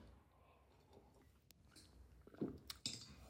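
Quiet mouth noises of a person sipping coffee: a few soft slurping sips and wet swallows toward the end, with faint clicks and no talking.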